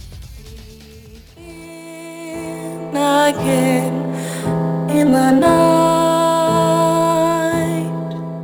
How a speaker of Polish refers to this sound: to w przerwie muzycznej jakiś kawałek z New Vegas puszczę, no bo to była najlepsza część serii, tak zaśmieszkuję. tak więc posłuchajmy.